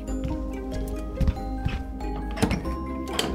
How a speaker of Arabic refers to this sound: لأن النقاء والهدوء لم يدوما طويلا سمعنا الباب يطرق بصخب شديد فأسرع جحا لفتحه